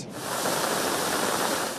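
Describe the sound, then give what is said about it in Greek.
A loud, steady roar of floodwater rushing in Volos, where heavy rain turned ravines into torrential streams, a dense continuous wash of noise with no breaks and no voices. “Ο μεγάλο όγκο βροχή μετέτρεψε σε ορμητικά ποτάμια τι ρεματιέ.”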